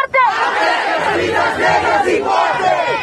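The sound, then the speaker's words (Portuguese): A loud crowd of protesters in Brazil shouts and chants against racism and police killings of Black people during the pandemic. Many voices overlap in a dense, continuous roar with rising and falling yells throughout. “Os brasileiros saíram às ruas, sim, em meio a uma pandemia, porque precisam gritar que o racismo é inadmissível.”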